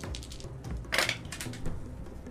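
Dice, including a percentile die standing in for a 4d10 roll, clatter and tumble onto the floor: a sharp burst of hard clicks and rattles, followed by a few scattered lighter taps as they settle, with no talking.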